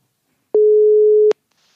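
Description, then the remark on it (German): A single steady telephone tone as a call is placed to radio presenter Christian Stübinger of Radio Hamburg, sounding for under a second, a clean mid-pitched hum that starts and stops abruptly, with silence on either side and no voices. “Den rufen wir jetzt mal an.”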